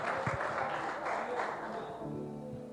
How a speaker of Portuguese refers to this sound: Ê, Glória, agora eu vou aplaudir, irmão, vou aplaudir.